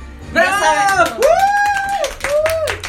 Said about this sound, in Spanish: Aplausos.